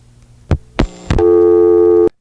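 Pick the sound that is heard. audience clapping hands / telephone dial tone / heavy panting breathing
telephone dial tone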